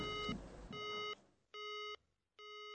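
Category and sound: signal or alarm, telephone busy signal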